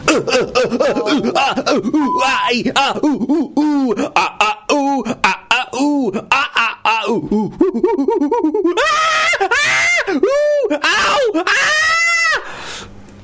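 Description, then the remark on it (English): A voice imitates the sounds of an orgy with exaggerated moaning and groaning, with wavering, rising and falling vocal wails in rapid succession, loud, building to higher strained cries near the end. “effects of, of an orgy? The most disgusting orgy ever.”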